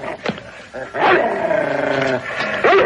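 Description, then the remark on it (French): A dog growls and snarls aggressively, a sharp bark early on followed by a sustained, rumbling, harmonic snarl that rises and falls over a couple of seconds. “Débarrassez-vous de ce chien. C'est interdit par le règlement.”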